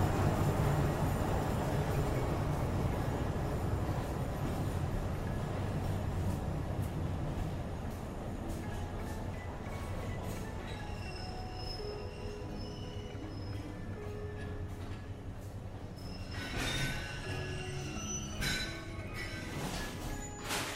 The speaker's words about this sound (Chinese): 现在我们在阿里山森林游乐区里面，看着火车缓缓进站。